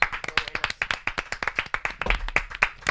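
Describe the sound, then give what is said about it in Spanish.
A crowd claps steadily for a few seconds for comedian Enar Álvarez on a programme, with dense, overlapping handclaps forming a continuous burst of applause at moderate loudness. “una cómica increíble que no sé de qué viene disfrazada, así que pido un aplauso para Enar Álvarez.”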